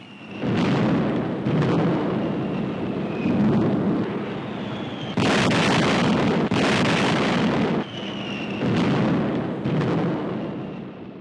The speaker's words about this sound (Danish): Som I kan høre, så er det tyske jægerfly, der forsøger at sætte nogle af de her øh, skibe med tropper og forsyninger ud af spillet. Og iblandt øh, de her forsyningsskibe, der er Tureby.